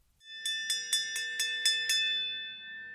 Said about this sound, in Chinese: 早上教员会的钟声响起，大家坐回到各自的位子上